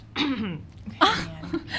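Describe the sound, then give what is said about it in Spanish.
A person coughs and clears their throat in a few rough, raspy bursts, a cough lingering after COVID: a longer hack, then a sharp second cough and a couple of shorter catches, with no speech. “Deja que tose un ratito.”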